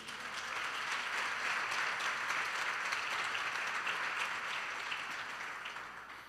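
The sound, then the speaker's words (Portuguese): An audience bursts into steady, dense applause for Jesus, many hands clapping together for about six seconds before it begins to taper off. No one speaks over it. “Você perdeu uma chance de aplaudir a Jesus.”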